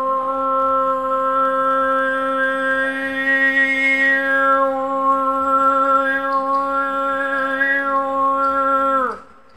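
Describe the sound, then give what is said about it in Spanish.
Mongolian kargyraa throat singing: one long, steady, buzzy drone with rich overtones, a faint whistle-like overtone shifting above it, held for about nine seconds before sliding down and stopping. “Es carguirá, ese es el nombre original en mongol.”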